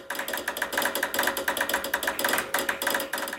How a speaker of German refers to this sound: Schließlich klapperten 1844 die ersten Telegraphen auf einer 60 Kilometer langen Leitung